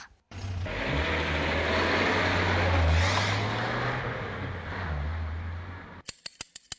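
A car engine runs steadily with a loud, low rumble and a broad hiss for several seconds, then cuts off into a short series of sharp, evenly spaced clicks.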